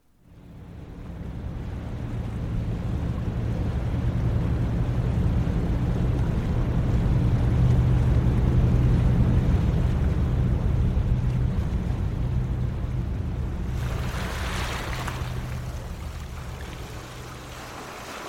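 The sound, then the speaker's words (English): A boat sailing to Islay: its engine drones steadily while waves wash and splash against the hull, with wind rushing across open water; a brief surge of spray near the end, no voices. “I packed my bags and set sail to Islay, and this is where the story really begins.”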